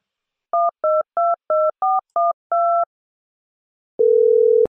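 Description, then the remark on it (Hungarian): A quick series of seven electronic keypad beeps as a phone number is dialed to call Lawrence Frank, each tone short and evenly spaced, followed by a pause and a steady hum of a ringing line tone. “Hol a telefon?”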